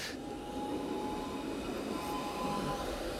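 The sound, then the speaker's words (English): A trolley streetcar rumbles past, a steady, loud rolling roar with a thin metallic wheel whine running through it, filling the whole moment with no voices. “Pause for another trolley.”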